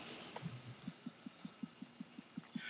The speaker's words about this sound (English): Are you? Do you have a dog scratching themselves, or are you tapping a table or something? I'm yeah, I'm bouncing. Okay, restless leg syndrome (RLS).